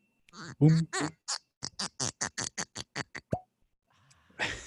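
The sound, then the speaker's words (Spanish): A cork squeaks and twists in a rapid run of short bursts before coming free of a mezcal bottle with a soft pop, followed by laughter. “Vamos a abrir el clásico sonido que me encanta.”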